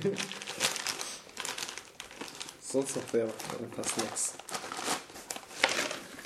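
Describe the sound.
Crinkly liquorice candy packaging rustles and crackles in irregular bursts throughout, loud and bright, while people talk over it in a relaxed conversation.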